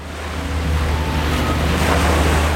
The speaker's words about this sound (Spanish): Es una marea incesante que acompaña las vidas de aquellos que sueñan, viven y respiran verde pues el sonido de las hojas movidas por el viento es justo como olas que rompen contra la costa.